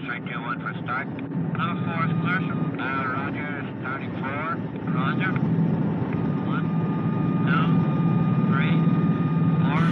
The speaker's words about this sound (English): This is the airplane starting up.